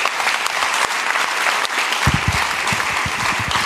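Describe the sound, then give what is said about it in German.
Sustained audience applause, a dense steady wash of many hands clapping at an even loudness, with some lower thuds and a few indistinct voices joining in the second half. “Also so, großen Applaus, so eingeladen.”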